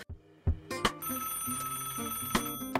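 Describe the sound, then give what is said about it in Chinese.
A phone's call-waiting incoming-call ringtone plays alone: a short electronic melody of stepped, mid-pitched notes over a sustained bright tone, punctuated by a few sharp clicks, with no talking. “您有一个插播来电。”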